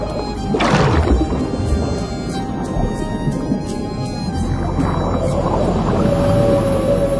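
A whale call sounds alone over a deep, rumbling underwater wash: a swooping moan rises early on, then softer groans drift through before a long, steady tone near the end.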